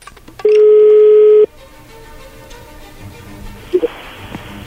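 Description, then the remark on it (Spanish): A loud, steady telephone tone sounds for about a second, followed by faint line hiss and a pair of quick dialing beeps as a phone call is being dialed, with no one talking. “Ahí se está marcando.”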